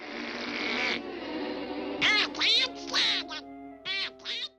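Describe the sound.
Donald Duck, the cartoon duck created by Walt Disney, lets out angry, squawking quacks in a rapid series of raspy, buzzing bursts, loud, with short pauses between outbursts.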